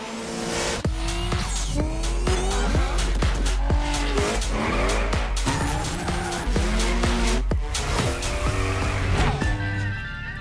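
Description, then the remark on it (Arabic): Loud racing car engines rev and roar continuously, with repeated sharp gear-shift bursts and what sounds like tire squeals, mixed with music-like tones throughout, from the video for Ubisoft's racing game The Crew Motorfest. “اطلعت شركة يوبيسوفت في فعاليتها يوبيسوفت فورورد واعلنت عن لعبة السيارات ذا كرو موتور بيست واللي راح تصدر على جميع الاجهزة خلونا نشوف فيديوها”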